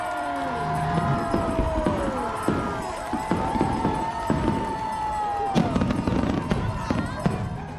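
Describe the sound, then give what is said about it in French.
Fireworks bursting over the port of Saint-Pierre at the start of a running race: a rapid, irregular string of sharp pops and booms, with whistling rockets gliding in pitch and a steady crowd murmur underneath. “Et là, il y a le feu d'artifice qui éclate au-dessus du port de Saint-Pierre.”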